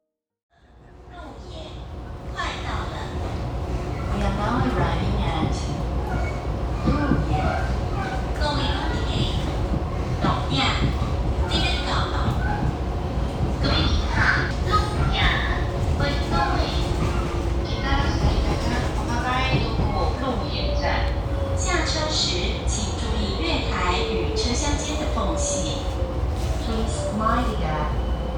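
A train running along the Taitung Line railway between Hualien and Taitung through the Huadong Valley in Taiwan: a steady, loud rumble with rattling and clattering that fades in and holds throughout, topped by a whining tone that rises and falls.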